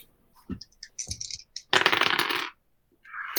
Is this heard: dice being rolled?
yes